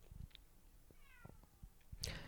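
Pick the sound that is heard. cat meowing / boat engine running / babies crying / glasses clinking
cat meowing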